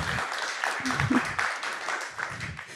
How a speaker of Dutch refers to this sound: Dan hebben we daarnaast Ismene. Ja, geef een applaus.